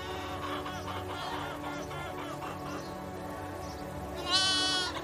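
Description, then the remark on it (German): Free-range chickens in the middle of a farmyard cluck and chatter steadily throughout as they run about excitedly at evening feeding time, a busy layered chorus ending with one louder, sharper squawk that rises above the rest. “In der Mitte des Hofes kannst du freilaufende Hühner sehen. Sie rennen aufgeregt umher, da auch für sie die Zeit des Abendessens gekommen ist.”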